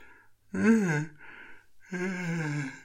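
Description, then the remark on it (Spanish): A person yawns: a breathy, voiced groan that rises and sags, a brief airy pause, then a second long drawn-out vocal exhale, with no talking. “Aprovecho para enseñarte mi bostezo.”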